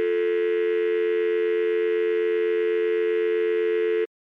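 A telephone tone after hanging up at the end of a simulated patient call: one steady, unbroken electronic buzz, fairly loud and mid-pitched with a bright edge, holding for about four seconds before cutting off abruptly. No one speaks.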